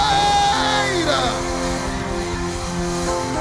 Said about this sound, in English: Come on, give Jesus your loudest celebration. Yeah! Somebody scream, yeah! Somebody celebrate!